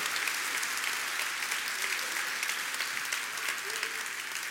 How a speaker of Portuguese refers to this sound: Dá uma salva de palmas aí.